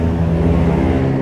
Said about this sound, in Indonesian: suara motor suara motor kalah suara gue